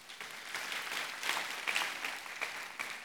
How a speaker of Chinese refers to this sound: 我们把掌声归给神，好吗？